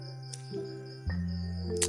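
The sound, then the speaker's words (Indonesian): Crickets at a house chirp in a steady, high-pitched drone that runs unbroken through the whole moment, fairly quiet and set against a low background hum, with no one speaking. “nah, eh, gue misalnya ada suara jangkrik atau burung ini ya lu nikmatin aja ya nggak tahu nih rumah gue padahal gue cari gue tuh cari-cari jangkrik gitu gue ya seneng mainan jangkrik tapi nggak ketemu gitu suaranya aja keras”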